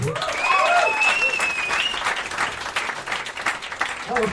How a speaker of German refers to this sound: Kleiner Applaus für den Herrn für den Redaktionsplan.